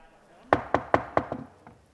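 Mayor Bob Sivertsen bangs a gavel four sharp, evenly spaced times to open a Ketchikan City Council meeting, followed by a couple of softer, quicker taps as it settles. The wooden knocks are loud and crisp, with no talking over them.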